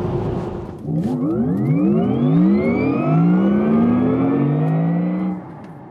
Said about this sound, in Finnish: Että kaikkea sitä tekeekin podi eteen, kun kuuden aikaa hyppää autoon ja lähtee liikenteeseen lauantai-aamuna.